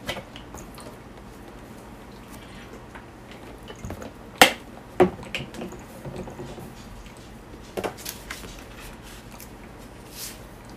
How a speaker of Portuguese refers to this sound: Vou tomar aqui o resto da minha água.